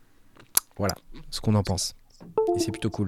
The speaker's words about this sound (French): Alors le petit bruit que vous entendez, c'est ma souris qui se déconnecte et qui se reconnecte.